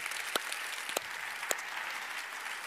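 In a church, a crowd applauds steadily, a dense wash of many hands clapping at an even level, with a few sharper individual claps popping out above the texture. No voices are heard.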